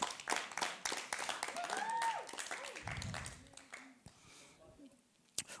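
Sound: applause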